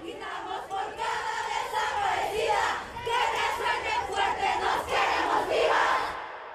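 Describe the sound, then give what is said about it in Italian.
A large crowd of women at a demonstration sings a popular protest song denouncing violence against women, loud, their voices blending into a steady, chant-like swell that carries on without a break for several seconds. “qui, ad una di queste manifestazioni, le sentiamo cantare ancora una canzone popolare,”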